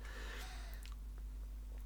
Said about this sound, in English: he doesn't make any noise but as like a filming technique, they include like uh, like the sound effects of the things. Like he pretends to ride a motorbike, and they include a motorbike noise.